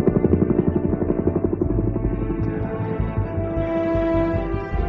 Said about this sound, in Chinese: 直升机一点点的接近了克里斯汀坠入冰窟的地方。